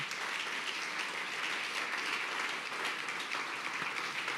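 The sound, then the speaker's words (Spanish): Sustained applause from a crowd, given to the God of the heavens, a dense, steady wash of many hands clapping at once with no one speaking over it. “Damos un aplauso al Dios los cielos.”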